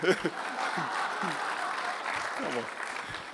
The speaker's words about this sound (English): It's like, by the way, I don't need a sympathy clap. You don't? that, that's okay.